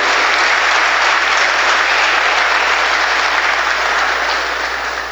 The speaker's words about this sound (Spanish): Le damos un fuerte aplauso, por favor.